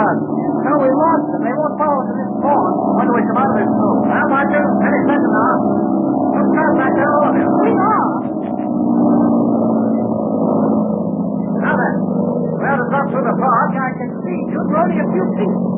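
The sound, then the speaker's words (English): Engines of pursuing airplanes drone loudly and continuously, a steady layered hum that holds throughout with slight swells, while voices talk over it now and then. “Yeah, they're right on our tail. You can hear them, dude.”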